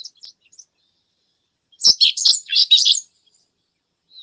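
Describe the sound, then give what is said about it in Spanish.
A pipit (cachirla), a sparrow-sized bird, sings a loud, rapid burst of high, buzzy chirps and trills lasting about a second, preceded and followed by a few faint notes, with no voices. “la cachirla.”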